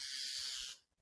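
loud bird call

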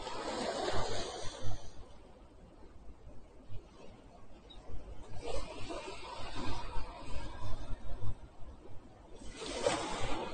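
ocean waves

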